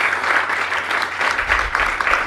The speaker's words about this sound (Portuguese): Gente, então salve de palmas de novo para os nossos palestrantes.